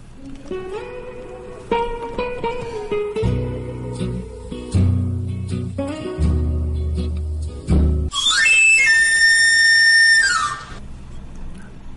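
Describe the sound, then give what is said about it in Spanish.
A knife-grinder's pan pipe whistle on Radio Briviesca 107.3 plays a shrill, rapid run of notes sweeping up and back down, loud, following several seconds of music with deep bass. “El afilador, el afilador se va a comer.”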